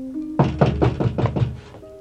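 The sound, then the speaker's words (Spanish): Six loud, insistent knocks on a street door in quick, steady succession, with a faint hum in the background and no voices. “Llaman a la puerta de la calle insistentemente.”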